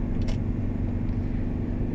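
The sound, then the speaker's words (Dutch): Steady low rumble of a moving van's interior, a constant droning engine and road hum with a faint brief hiss early on, no voices. “En vandaag was mijn excuus eh, dat ik hem niet op wilde nemen omdat ik in, de, in een busje zit. En waarschijnlijk hoor je heel veel ruis.”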